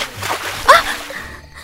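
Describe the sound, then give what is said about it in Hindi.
A single quick splash of water as a glassful of water is thrown onto a person's face, bursting briefly, then fading into a faint watery trickle with no one speaking. “उसकी माँ उसके साथ बचपन से करती आ रही थी एक पानी का ग्लास लिया और”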